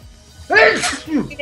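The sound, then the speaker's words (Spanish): A single loud sneeze with a sharp breathy burst, followed by a brief voiced trailing sound as the person recovers. “Salud.”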